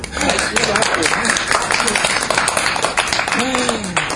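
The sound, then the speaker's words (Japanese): A crowd applauds steadily on the third floor of Monsoon Cafe in Daikanyama, at the start of a recorded group discussion, a dense, crackling wash of many hands clapping at once, with a few voices calling out and chattering underneath throughout. “えー、っと会場は今日は結構いろんな方が来てるんですけども拍手か拍手は”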